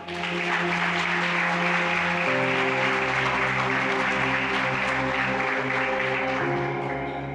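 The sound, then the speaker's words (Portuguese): A church audience applauds the Lord after a sermon, clapping steadily and loudly for several seconds, a dense wash of applause with sustained organ or keyboard chords holding underneath and shifting pitch partway through. “Aplauda ao Senhor.”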